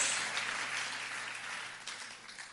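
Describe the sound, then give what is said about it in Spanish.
A church audience bursts into sustained applause for the King, a dense wash of many hands clapping at once, steady and fairly loud throughout with no voices rising above it. “Mire, yo prefiero, mire, yo prefiero, un aplauso al rey, le quiero decir lo siguiente.”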